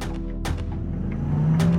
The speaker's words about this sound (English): and then heard a car speed off westbound down 118th Place